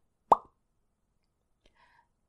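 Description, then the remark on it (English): A single loud, sharp pop of a jaw dislocating rings out with a short hollow resonance, then silence broken only by a couple of faint, soft clicks. “Shane could feel his jaw dislocate from its grip with a loud”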